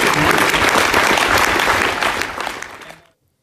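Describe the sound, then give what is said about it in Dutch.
A church audience claps after an announcement, in a dense, sustained burst of applause that holds strong for about two seconds, then thins out and fades to silence. “ik heb nu ook weer de neiging om mee te gaan klappen.”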